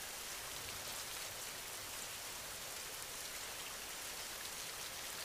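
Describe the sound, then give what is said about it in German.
Soft, steady rain falls continuously, a gentle hiss of drops with no pauses or voices, fairly quiet and even throughout. “Alles, was dich belastet, wird von dem sanften Regen weggewaschen.”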